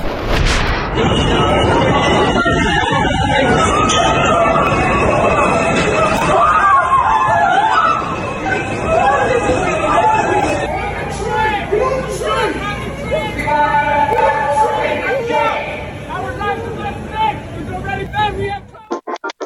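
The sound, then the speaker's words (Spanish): A panicked crowd inside the Brooklyn subway in New York after a morning shooting, overlapping shouts and frantic chatter, loud, a continuous wash of agitated voices with bursts of noise throughout. “que escuchamos es parte de esta mañana esta mañana violenta que se vivió allá en Nueva York.”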